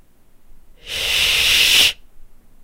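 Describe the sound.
A single sustained hissing shush whispered right at the ear during a flight, about a second long, bright and breathy, starting and stopping abruptly against near silence, with no talking.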